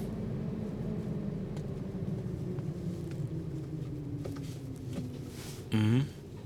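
Steady in-car road rumble with a low, wavering howl of wind from the car's roof rack droning underneath, and a brief louder harmonic whine near the end. No one speaks.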